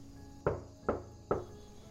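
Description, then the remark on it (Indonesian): Three firm knocks on a wooden front door, evenly spaced, each a dull thud with a short ring, over a faint background hum. “Tiba-tiba ada suara ketukan di depan pintu lalu kedua kali.”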